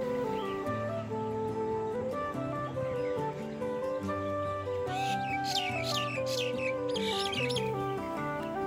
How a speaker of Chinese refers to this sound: 台湾蓝鹊有一个非常特殊的护幼行为，成鸟常常会因为要保护幼鸟，只要有人路过或是靠近他们的鸟巢附近，就会被台湾蓝鹊攻击。所以这一阵子，如果大家在经过树下时听到蓝鹊的警示声音，请赶紧避开。